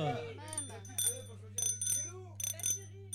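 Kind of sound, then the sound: signal or alarm, small bicycle bell ringing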